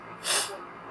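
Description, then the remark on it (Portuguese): A single short, breathy cough bursts out, a quick airy rasp that fades within a moment, with no talking around it. “Eu tô rindo e tossindo agora.”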